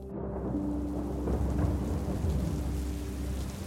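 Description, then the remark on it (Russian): Steady, heavy rain pours continuously, a dense hiss with a deep low rumble underneath, like thunder rolling through a storm. No voices are heard. “Ты любишь дождь?”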